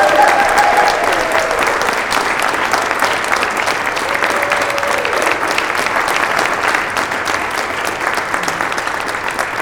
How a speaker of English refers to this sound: We are a community that values joyful noise, and so I invite you to join with me with clapping and cheering if you are able and would like to join in that way as we welcome these new members.